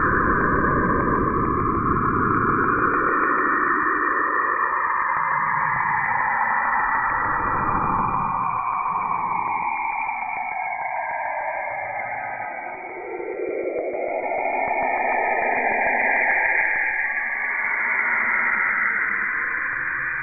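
Saturn's radio emissions rendered as sound: an eerie, unbroken wash of static with swooping, whistling tones that rise and fall, steady and fairly loud throughout, with no voices.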